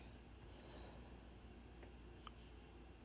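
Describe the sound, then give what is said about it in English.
Frogs and crickets chirring outside at night, a steady, unbroken high-pitched drone held at low volume against a quiet background, with one or two faint clicks near the end. “right now, as I broadcast this today, I hear the frogs and I don't know if it's crickets frogs and crickets outside um, making their um, chatter.”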